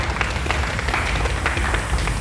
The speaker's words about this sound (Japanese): 足踏みしてる足踏みしてますパチパチっての何、はい、これクラップですクラップ、はい、手拍子ね